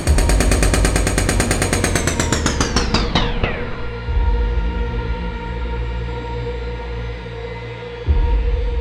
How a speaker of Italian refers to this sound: Purtroppo le sue urla sono coperte, probabilmente, anche perché altra spiegazione non esiste, dall'assordante fragore di un martello pneumatico in funzione.